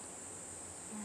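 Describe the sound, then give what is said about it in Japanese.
A steady chorus of cicadas in a mountain forest on a clear, sunny day drones in a continuous high-pitched buzz, fairly faint and unbroken throughout, with no voices and only a soft low rumble beneath. “お気づきの方もいるかもしれないんですけど聞こえてますかね今セミの声がすごい聞こえていていつもはねスタジオでポッドキャスト収録してるんですけども今日は山奥に来て自然の中でこのポッドキャストを収録しております。”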